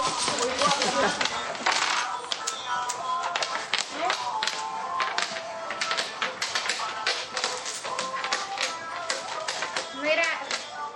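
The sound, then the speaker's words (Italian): Domino tiles clack and rattle in a rapid, irregular stream of sharp clicks, fairly loud, as people play dominoes in a street in Cuba, with people chattering underneath throughout. “I litigi e il rumore delle fisce sono assordanti, per questo nessuno li vuole in casa.”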